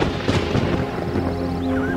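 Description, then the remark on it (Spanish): A deep thunder boom from an approaching storm rolls in, with a few rough cracks near the start, then settles into a steady, heavy rumble that fills the whole moment. No one speaks. “Una tormenta se acercaba.”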